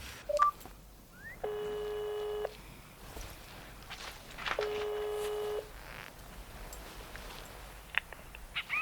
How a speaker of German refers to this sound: Herrchen will ja nur mit dem Handy den lieben Onkel Doktor anrufen. Ich drücke auf die Lautsprechertaste. Dann könnt ihr mithören.